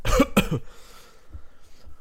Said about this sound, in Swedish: Hosta slem när du är riktigt glad.